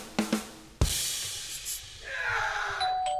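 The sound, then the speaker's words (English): A doorbell rings with a couple of quick chime tones, then a sharp knock-like hit and a hissing rush, with thin electronic tones lingering afterward. No one speaks. “Someone's just there. Let's open the door.”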